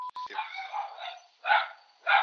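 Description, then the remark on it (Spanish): A dog barks outside, down in the street nearby: a few drawn-out, yelping barks, following a couple of short electronic beeps at the start. “Vamos a tener de fondo un perro.”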